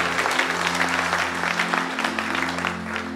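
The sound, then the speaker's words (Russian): An audience applauds the Holy Spirit, a dense wash of many hands clapping at once, fairly loud and sustained for a few seconds, with a low steady hum underneath. “Давайте Духу Святому поаплодируем, который здесь, на этом месте.”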